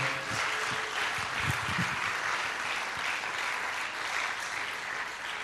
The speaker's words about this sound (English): Come on, let's give him a great round of applause today.